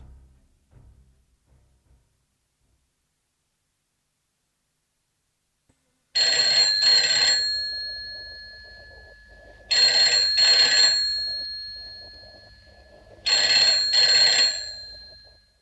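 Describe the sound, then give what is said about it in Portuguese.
A telephone rings three times in a steady pattern, each ring a loud, bright bell burst of about a second followed by a decaying pause, with near silence before the first ring. “lá fugiu a atenção para o telefone, depois para os gritos.”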